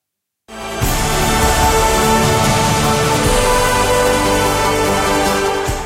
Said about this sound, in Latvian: Skan Jūri Jansona izvēlēta dziesma.